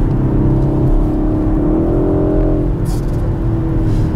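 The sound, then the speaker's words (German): A four-cylinder car engine hums steadily and then revs up, its exhaust note, played through the car's speakers, rising smoothly in pitch before settling, heard from inside the car with no voices. “Da kommt der Auspuffsound zwar auch aus den Boxen, das klingt aber einfach nur gut. Also so richtig schön nach Vierzylinder.”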